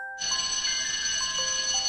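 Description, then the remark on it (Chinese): A school class bell rings loudly and continuously to signal the start of class, a steady metallic high-pitched clang that starts abruptly after a brief pause and holds without break until the end. “直到上课铃声响起来，我们的问题还没找到答案。”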